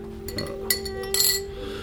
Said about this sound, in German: der weit über 100 Kilo auf die Waage brachte, saß allein am Stammtisch und war daran, ein trübes Pulver in ein Glas zu rühren.